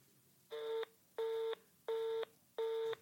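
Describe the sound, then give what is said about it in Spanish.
Four identical electronic beeps from a phone keypad as a telephone is dialed to place a call, evenly spaced and steady, each a short buzzy tone of equal length and loudness, with no voices. “Pues cómo entonces, ¿cómo se marca este maldito teléfono? Vamos a hacer otro intento con este teléfono y si no funciona, eh, fracaso total.”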